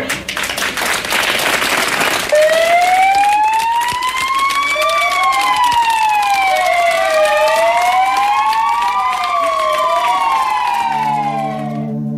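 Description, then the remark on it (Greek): Several fire engine sirens wail together, their rising and falling tones overlapping loudly after a burst of crowd applause and cheering at the start, with a low horn-like drone near the end; the fire engines also have their beacons lit. “Βάλαν και τι σιρήνε εκεί τα πυροσβεστικά οχήματα, ανάβαν και οι φάροι.”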